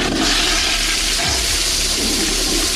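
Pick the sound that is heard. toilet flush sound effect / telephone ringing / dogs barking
toilet flush sound effect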